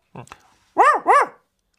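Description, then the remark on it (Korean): A person imitates a dog barking, with a couple of soft breathy sounds first and then two loud, harmonic "woof" calls in quick succession. “이 개 짖는 소리가 세 번 들리면 응. 뒷산 초입에 있는 느티나무 아래로 나와.”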